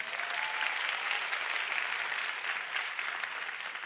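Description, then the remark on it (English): A church audience claps steadily for several seconds as a hand clap offering for two pastors, a dense, even wash of applause with no pauses or voices rising above it. “Let's give them a God bless you hand clap offering.”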